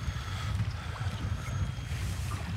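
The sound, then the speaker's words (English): Steady wind on a windy day buffets the microphone with a low, constant rumble, over faint lapping water. Continuous and fairly loud throughout, with no voices. “a little windy today.”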